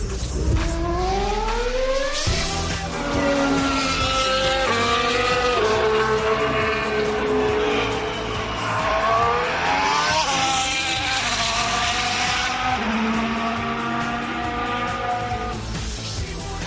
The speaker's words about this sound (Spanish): Qué bueno volver a escuchar este sonido como vivimos estos tres días de pruebas en Barcelona. En este caso escuchábamos al que algunos dicen que es el motor más potente de la Fórmula 1 actual.